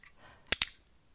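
An iClick training clicker snaps once, a crisp double click of press and release in quick succession, loud and sharp against an otherwise quiet background with no talking.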